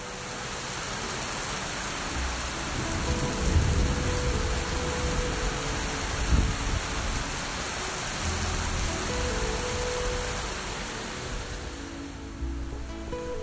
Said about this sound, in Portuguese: Que lindo esta chuva. Agora está chovendo uma forma muito forte aqui. E eu gosto demais quando chove assim, não sei, tem um sentimento que acredito que é muito lindo, muito boa, muito legal.